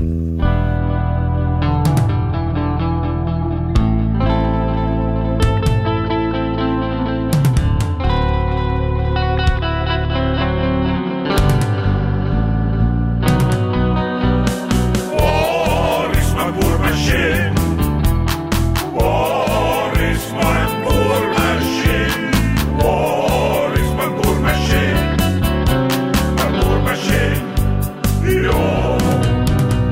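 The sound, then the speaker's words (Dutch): An early version of a reworked rock song with heavily effected, distorted guitar; a sparser, chorus-washed opening gives way halfway through to a loud full band with driving drums and crashing cymbals. No voices. “ik moet dat nummer tot de essentie herladen”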